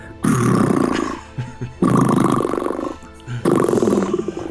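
Loud, rumbling snores from a large, sprawled-out body come in three long, rough breaths with short pauses between them, heavy with a growly, roaring texture.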